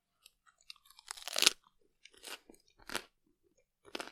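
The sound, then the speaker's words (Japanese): Crisp crunching as a raw broccoli floret, broken off by hand, is bitten and chewed: a loud snapping bite followed by several separate crunchy chews with short pauses between them, with no talking. “はい、今無理やり折りましたけど、これをそのまんままずはかじってみたいと思います。”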